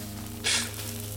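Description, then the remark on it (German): A cigarette being lit outdoors: one short, bright hissing flare lasting a fraction of a second, rising out of a steady low electrical hum that continues on either side. “Egal, erstmal eine Ziege anmachen.”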